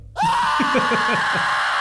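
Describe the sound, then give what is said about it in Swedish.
A loud, sudden burst of people screaming in terror, a sustained wall of shrill cries with several overlapping falling wails, unbroken for nearly two seconds. “De skriker av skräck.”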